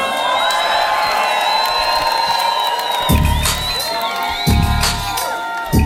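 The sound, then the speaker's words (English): A large festival crowd cheers and whoops continuously for themselves and a performer, high yells and shouts layered over a steady roar, with a few louder surges of noise near the end. “give it up for yourselves. Give it up for ….”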